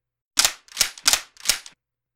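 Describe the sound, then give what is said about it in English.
Four sharp metallic clacks in quick, slightly uneven succession: weapons, guns, being cocked one after another, each crisp with a brief ringing tail, and no voices. “It was the sound of weapons being cocked.”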